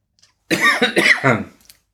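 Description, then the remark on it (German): A person coughs, a quick run of three or four raspy, throaty coughs lasting about a second, with no talking around them, while sitting in a very warm office on a hot day. “Muss leichte husten, weil wir sitzen heute nämlich ähm, furchtbar warm hier.”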